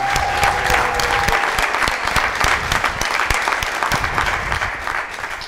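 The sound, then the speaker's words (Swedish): Sustained applause from a large studio audience welcoming guest Jan Emanuel, dense rapid clapping that stays steady and loud throughout, with a faint tone briefly audible underneath at the start. “Mina damer och herrar, alla här inne, alla där hemma, ge en stor applåd till Jan Emanuel!”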